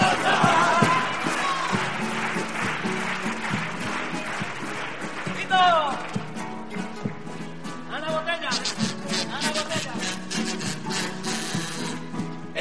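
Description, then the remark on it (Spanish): A live audience claps steadily for several seconds, a dense wash of applause mixed with scattered cheers and voices from the crowd, staying fairly loud throughout. “Si tú tienes que te mande una sonrisa, solo tienes ahora que aplaudir.”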